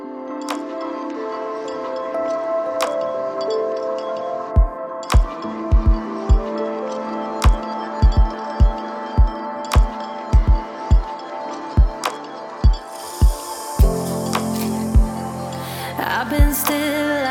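An electronic music track with sustained synth layers and a steady kick drum that enters a few seconds in, punctuated by sharp hi-hat and cymbal hits, loud with no voices.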